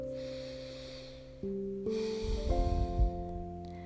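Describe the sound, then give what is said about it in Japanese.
Heavy breathing through the nose, demonstrating a yoga nasal breathing technique: a long, rushing breath that builds and roughens toward the end, over a steady humming tonal drone in the background. “分かんない私の鼻息が荒いだけに聞こえてたらごめんけど理想は理想は波の音海の波の音波が引いてザブーンっていう感じ”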